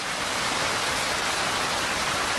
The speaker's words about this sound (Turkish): Bayramın üçüncü gününde ise Kayseri kent merkezi yağmur suyuna gömüldü. Bazı caddeler diz boyu yağmurla doldu.